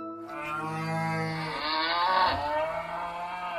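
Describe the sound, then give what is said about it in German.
A single cow lets out a long, drawn-out moo, starting low and rising into a strained, nasal bellow before trailing off, clear with no talking. “Kühe sind Klimakiller.”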